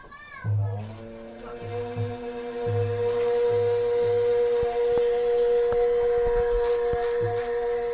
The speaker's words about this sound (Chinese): 这个乐器的名字就叫做苏尔，苏州的苏，耳就是偶尔的。这是我们叫的名字，它准确报的名字叫楚武尔，楚国的楚。